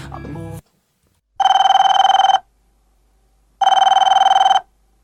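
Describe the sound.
A telephone rings twice as a man calls his brother, each ring a loud, steady burst of about a second with a bright, harmonic electronic tone, separated by a pause. A brief snippet of speech is heard at the start.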